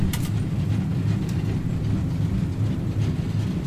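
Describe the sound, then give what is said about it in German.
A steam locomotive train runs steadily on relatively flat track, a continuous loud, low rumble with faint rhythmic clatter and a brief hiss at the start, no voices. “Wir fahren ja jetzt relativ flach.”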